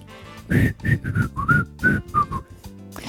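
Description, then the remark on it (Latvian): A clear whistled melody at the start of a song, about eight short, pitched notes rising and falling in a steady rhythm, fairly loud, with no talking. “Man šķiet, ka suņiem, jo dziesmas sākumā melodija tika svilpota.”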